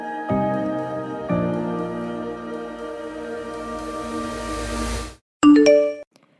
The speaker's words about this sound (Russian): На почте новое уведомление, письмо от стипендии Чивнинг.